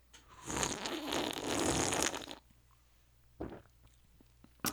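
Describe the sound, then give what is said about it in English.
A noisy slurping sip of Fresca soda lasts about two seconds, followed by quiet, then a short gulp-like swallow and a faint click at the end. No one speaks. “Right here, I'll take a sip, and based on the sip, you'll be able to to tell.”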